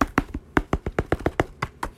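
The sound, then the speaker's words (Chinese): Urgent knocking on a door: about a dozen quick, sharp raps in a hurried, slightly uneven rhythm, fairly loud and alone with no voices. “第二天早上，正当小公主跟国王用餐的时候啊，突然听到门外传来急促的敲门声，”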